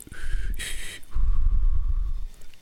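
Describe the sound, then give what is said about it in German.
A person whistles a short Western-style melody, a few sustained notes broken by a breathy, hissing burst, with some low rumble underneath. “Ah, sein Pfeifen ist der Sound von dem. Ich habe nicht richtig gepfiffen.”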